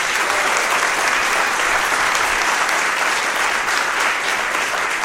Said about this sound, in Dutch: Ladies and gentlemen, nog één keer een heel warm applaus voor Guido Weijers.